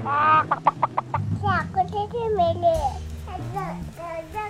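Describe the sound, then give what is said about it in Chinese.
A voice imitates a hen clucking: a quick burst of short, repeated clucks, then drawn-out, wavering squawks that rise and fall in pitch, with other voices faintly underneath. “聪明老先生出主意：“ 哦，把我的母鸡抱进屋。”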